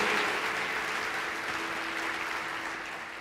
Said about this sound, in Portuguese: Uma salva de palmas para Jesus, por tudo que está acontecendo em nosso meio.